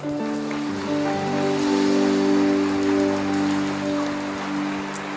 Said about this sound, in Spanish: Le damos un aplauso, mis hermanos.